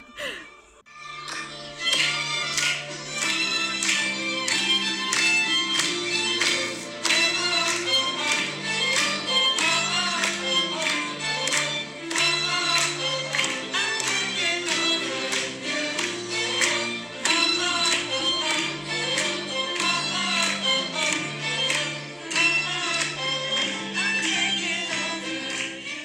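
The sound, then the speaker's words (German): Loud, steady rhythmic clapping from a crowd keeps the beat along with a song, the sharp claps standing out over the music for the whole stretch. “Also ich muss sagen, hier auf der Aufnahme klingen die Klatscher jetzt extrem laut.”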